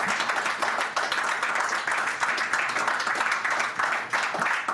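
An audience at an event applauds a guest and the Hard Rock, clapping steadily for about five seconds, a dense, even wash of many hands clapping at once with no break or clear rhythm.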